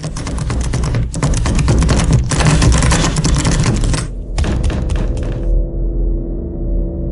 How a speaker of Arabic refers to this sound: ومن هنا الباب مش عارفين يفتحوه بأي طريقة فضلوا يخبطوا فيه ويشدوا فيه ويصرخوا